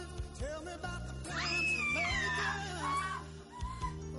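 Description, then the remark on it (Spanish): A shrill, high-pitched scream like a little girl's rises and then slides downward over a couple of seconds. It sits over a steady, droning low background and ends in shorter, fainter cries. “La verdad no sé, su aspecto no concuerda con sus gritos de pequeña niña.”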